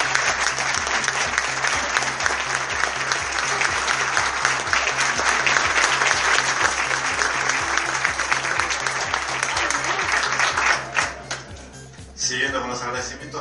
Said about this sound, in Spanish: Así que si hubiera sido por el Colegio Martilleros, no estábamos acá haciendo esto. Así que un fuerte aplauso para